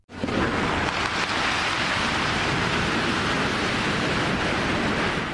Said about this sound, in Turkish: Şimdi e, bir bina yıkılma anı kontrollü yıkılmaya çalışıldı ama o yıkım kontrolden çıktı. Kontrollü yıkım sırasında kontrol kaybedildi. Kolonu aniden kırılan bina geniş bir alanı etkileyecek şekilde yıkıldı.